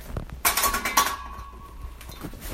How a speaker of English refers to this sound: through our garlic press.